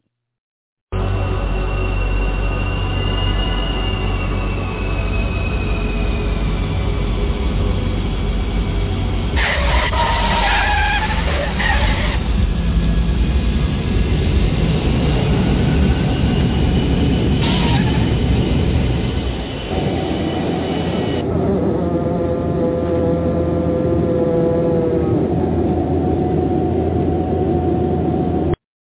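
An airplane landing: a steady, heavy engine roar with whining tones over a low rumble, two short harsh bursts partway through, then the deep rumble drops away while a thinner whine carries on.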